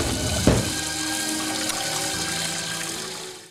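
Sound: running water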